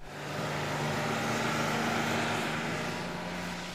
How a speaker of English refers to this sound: A bus.